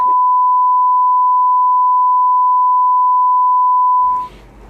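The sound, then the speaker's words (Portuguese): A steady, loud censor bleep holds a single pure tone for about four seconds, then cuts off abruptly into muffled background noise and faint voices. “Puta, você pra que ser bipado, né?”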